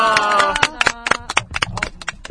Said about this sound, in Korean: 시간이 다 됐으니까 네. 우리 다 같이 박수 치면서 마치도록 하겠습니다.